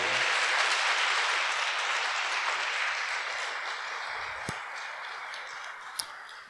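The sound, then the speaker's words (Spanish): Sustained applause from a large crowd applauding the Lord, a dense steady clatter of many hands clapping that slowly eases, with a couple of sharp isolated claps near the end. “Más fuerte ese aplauso, por favor, es para Él.”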